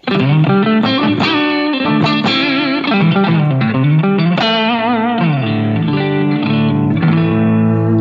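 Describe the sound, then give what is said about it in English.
An electric guitar with a Strat body, Strat neck pickup and P90 pickup plays a steady run of notes and chords, its tone changing from a clean sound to a gritty, overdriven one with a touch of reverb, without the Helix being touched. No one speaks. “So just to let you hear how it'll go from like a clean sound to drive without even touching the helix.”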